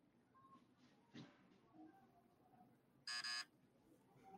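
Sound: buzzer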